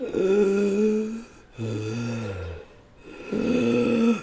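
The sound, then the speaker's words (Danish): A voice imitates a woman's deep, rasping, snore-like breathing as she went into a deepening trance, in three long drawn-out breaths with brief pauses between, loud, with no words spoken. “vi sad der og kiggede, det var ikke nogen snorkning, det var, hun begyndte at gå i trance og den blev dybere og dybere.”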